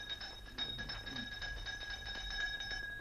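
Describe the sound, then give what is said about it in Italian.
A sacristy doorbell rings continuously with a rapid, rattling electric trill, steady for about three seconds, with no voices, at almost midnight. “Era molto tardi, era quasi mezzanotte quando suonai il campanello della sagrestia.”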